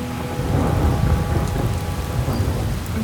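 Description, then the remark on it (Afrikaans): Steady, dense rainfall with a low, rumbling roll of thunder underneath, continuous and fairly loud throughout, with no voices. “En sy hop deur die hekke van die groentetein tot sy om die draai in die reën verdwaal.”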